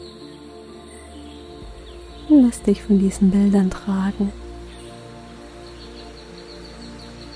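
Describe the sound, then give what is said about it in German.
Steady rainforest ambience of buzzing insects and bird calls runs throughout at a soft, even level, with a calm voice briefly guiding a sleep meditation over it midway. “Schlafmeditation: Einschlafen im Regenwald”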